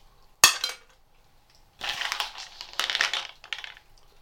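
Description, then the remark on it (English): An almond drops into a metal bowl with one sharp, ringing clink, followed by a couple of seconds of rough crunching and scraping. No one speaks. “almond metal ball.”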